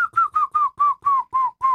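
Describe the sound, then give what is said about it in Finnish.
A person imitates a grey-headed woodpecker's call, producing it from the throat rather than by whistling: a steady series of about eight clear, whistle-like notes, evenly spaced and slightly falling in pitch, fairly loud with no talking. “Harmaa päätikka. Tuosta matkinnasta sen helposti ja, tuntee, mutta ääni oli kyllä tuotettu varmaan ihan eri tavalla kuin yleensä.”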